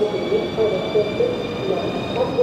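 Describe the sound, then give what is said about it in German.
Train station platform ambience: a steady low rumble and hiss with a thin high-pitched whine, while muffled voices murmur faintly in the background. “Ich hoffe doch von dem Gleis hier, wo ich jetzt stehe.”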